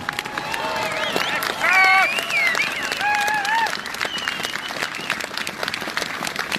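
A large crowd outdoors at a protest claps for itself enthusiastically, with scattered cheers and whoops rising above the steady applause, which swells early then gradually thins out toward the end.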